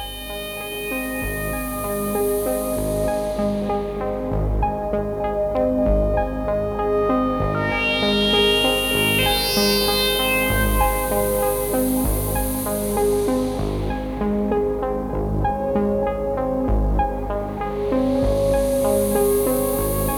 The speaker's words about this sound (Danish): set bare op og ned for nogle forskellige frekvenser i, øh, i den her pink noise